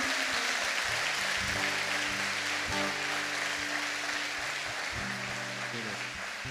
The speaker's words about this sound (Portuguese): Só aqueles que creem aplaudam bem forte o nome de Jesus neste lugar.